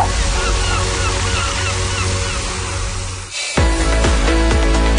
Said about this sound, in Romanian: Ascultă Marea la radio.